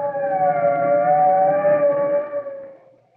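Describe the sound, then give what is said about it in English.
Fire truck sirens wail loudly and steadily for close to three seconds as the fire trucks approach, the high tone slowly sliding in pitch, before quickly fading away. No voices are heard. “Here comes the fire trucks, Tim.”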